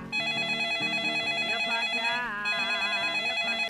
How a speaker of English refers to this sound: Then the phone rang.